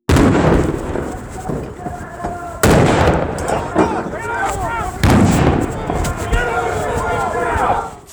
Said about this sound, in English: Flashbang grenades explode around them as FBI agents sprint out, guns drawn.